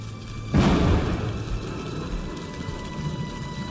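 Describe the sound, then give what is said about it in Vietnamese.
A sudden, heavy thunder crash bursts in and rolls on as a deep, lingering rumble, with a steady wash of rain-like noise continuing underneath. No voices are heard. “Một tiếng sấm nổ rung chuyển cả trời đất”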